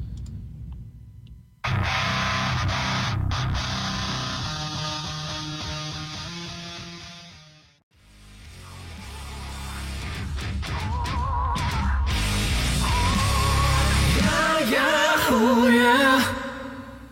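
A heavy rock cover song plays loudly with distorted guitars and driving drums, cutting out briefly in the middle before swelling back into a dense, effects-laden full-band section.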